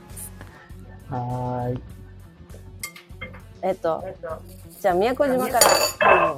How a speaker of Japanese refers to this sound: ちょっとあの、レストランからね、お送りしているので、なんかいろんな音が入ってますけれども